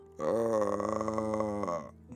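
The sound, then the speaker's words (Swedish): A person lets out a single low, drawn-out groan, imitating an undead creature. It holds steady for nearly two seconds, fairly loud, then trails off with no other talking. “Det låter som en odöd.”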